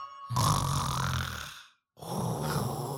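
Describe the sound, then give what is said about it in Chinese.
Two long, rumbling snores follow each other with a short silent pause between them, deep and raspy with a breathy hiss on top, from tired soldiers dozing under a tree. No one speaks. “树上的知了鸣叫，树下的人们打着瞌睡。”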